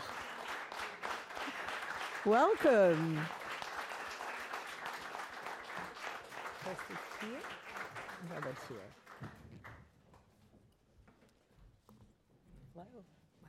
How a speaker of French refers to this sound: Et sans plus attendre, je vous demande d'accueillir Gwyneth Paltrow et Robert Downey Jr., que je vous demande, bien entendu, d'applaudir très fort.